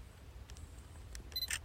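A camera takes a photo of a "bears present" warning sign on a hiking trail: a few sharp mechanical clicks spaced across the moment, ending with a brief high electronic beep and a final shutter snap over a low, steady background rumble.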